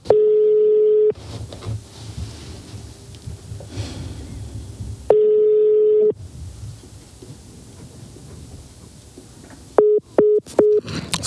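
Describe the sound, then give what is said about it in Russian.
Ringback tone of a phone call waiting to be answered: two long, steady beeps about four seconds apart with line hiss between, then a quick run of short beeps at the end. “Очень торопится к телефону.”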